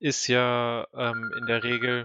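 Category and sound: signal or alarm, mobile phone ringing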